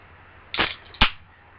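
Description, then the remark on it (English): A can of IPA beer cracked open: a short hissing burst followed by a sharp metallic snap, with no one speaking. “Yeah, out of a can, like a man.”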